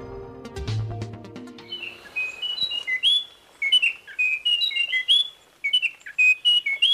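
A short burst of music gives way to a Munchique wren singing: bright, clear whistled notes in quick repeated phrases, loud, with no talking. The species was first observed in 1980 and lives only around Munchique Natural Park, between the Western Cordillera and the Pacific coast of Colombia.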